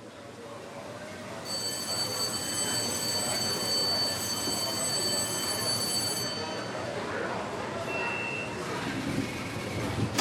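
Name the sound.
beijing subway train running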